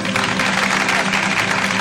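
A steady wash of audience applause, dense and continuous clapping at an even loudness throughout, with no distinct voices standing out.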